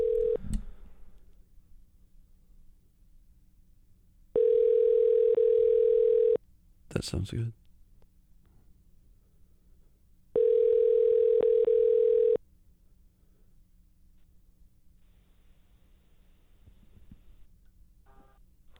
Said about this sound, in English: Can I, uh, let's dial? Okay. all right, we're dialing again. Here we go. All right. Here we go.